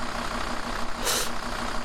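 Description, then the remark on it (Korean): A truck engine rumbles steadily as the truck pulls away, heading to a farm, a low droning hum throughout, with a short hissing burst partway through. “낯선 사람을 따라가도 될까? 라고 생각하는 사이 이미 트럭은 출발했다.”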